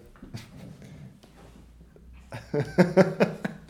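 animal, dog whimpering

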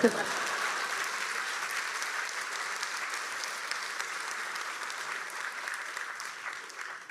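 crowd, audience applause

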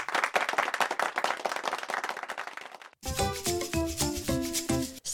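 crowd, hand clapping

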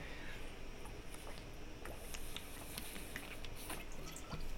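human body sound, speaker sipping water

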